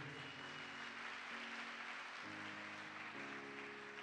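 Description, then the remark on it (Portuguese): During a sermon, an audience claps steadily for the king in a dense, sustained wash of applause, with a sustained musical tone shifting beneath it and no one speaking. “Dá uma salva de palmas ao rei.”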